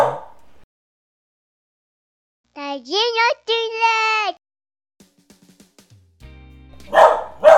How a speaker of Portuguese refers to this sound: Ó, não sei se tá ouvindo barulho de cachorro aí, porque agora eu tenho um cachorro aqui e ela faz um barulhinho aí.